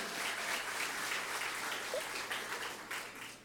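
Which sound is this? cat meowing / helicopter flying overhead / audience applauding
audience applauding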